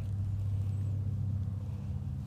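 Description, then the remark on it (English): A twin-engine plane cruises overhead, a steady, low, humming rumble that holds evenly throughout without fading, clearly present, with no voices. “Well, there's this two engine plane again, cruising right back overhead.”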